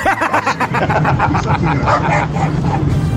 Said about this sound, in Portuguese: Ui, é o cachorro, é o cachorro.